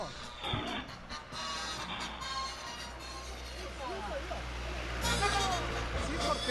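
A truck rumbles past, its loudspeaker blaring an amplified, distorted announcement advertising a circus over steady street noise, growing louder toward the end as it approaches.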